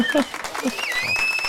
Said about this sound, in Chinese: 拍手鼓励